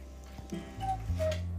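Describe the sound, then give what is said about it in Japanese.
A mechanical trick clock chimes, sounding a few sustained, ringing tones one after another over a low steady hum, fairly soft, with no one talking. “すいません仕掛け時計が鳴っておりますすいません仕掛け時計が鳴っちゃいましたねそうそのまま流すっていう まちょっとご了承ください”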